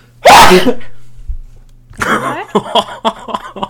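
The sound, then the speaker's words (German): A single loud sneeze bursts out sharply near the start, followed after a short pause by a series of breathy, uneven vocal sounds and light laughter. “Oh, ich muss mal mhm. kurz niesen, glaube ich.”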